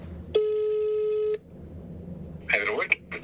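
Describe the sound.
One steady, buzzing telephone ringback tone lasting about a second as a call is placed, heard through a phone line, followed by a pause and then a voice beginning to speak.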